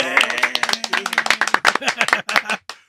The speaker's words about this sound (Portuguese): Então, estamos aqui na presença ilustre de mais um grande convidado aqui. Palmas!